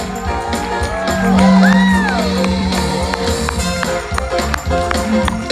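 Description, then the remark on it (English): A crowd cheers and claps for the fireworks team after a fireworks show, with whoops and shouts rising over steady applause that swells early and then holds loud throughout. “It's hot back there, smoky, but they did a great job. Give them a hand.”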